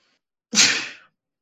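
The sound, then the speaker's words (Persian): A single sharp sneeze bursts out, a sudden loud hiss that fades within half a second, with silence before and after. “ببخشید من ممکنه عدسه کنم”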